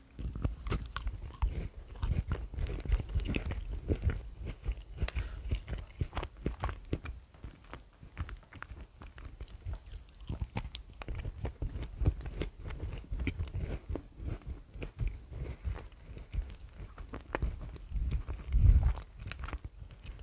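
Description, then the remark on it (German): Steady biting and chewing of fig strudel pastries, with soft crunchy, sticky mouth sounds repeating in an irregular rhythm for about twenty seconds, no talking. “Und jetzt ist es auch endlich mal an der Zeit, wir probieren, äh, beziehungsweise ihr habt einfach das Geräusch erlebt, ist fertig.”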